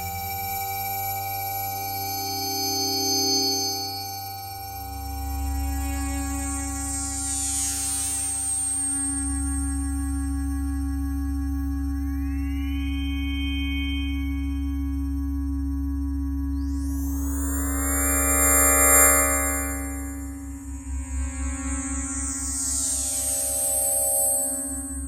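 Electronic music from 1998, made on Yamaha TX-FM modules and built from pure sine tones: steady low drones beneath high, bright tones that swoop and glide in sweeping arcs, swelling in waves with no voices.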